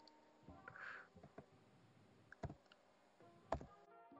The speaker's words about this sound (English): Type, type, type. How hard do you have to press the fucking keys for them to input your clicks?